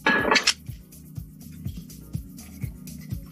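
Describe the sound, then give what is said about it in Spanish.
A bright clink of a spoon on glass, followed by steady, rhythmic stirring of a vodka cocktail with ice and squeezed lemon. Soft, repeated swirls and light taps come about twice a second. No one speaks. “Lo revolvemos para mezclar y para que las bebidas se enfrían,”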